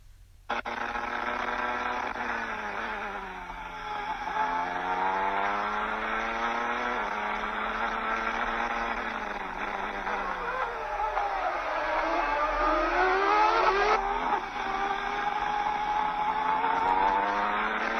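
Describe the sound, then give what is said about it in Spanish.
Formula One race cars, including Ayrton Senna's, scream along the track as the race restarts on lap 6 after a safety car period, their high-revving engines rising and dropping in pitch as they accelerate and pass, a loud continuous roar with no voices. “La carrera se reanudó en la vuelta número 6.”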